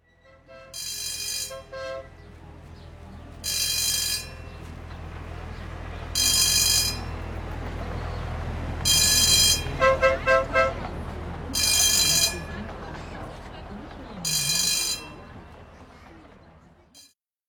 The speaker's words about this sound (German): Ähm, denn sie fährt überall einmal rum und ist eine typische Parkrundfahrt. Und hat eine wunderschöne Anlage äh, zur Fußgängerwarnung ich habe da irgendwo eine Aufnahme rumliegen, die schneidet euch dann mal rein, damit ihr wisst, wovon ich rede.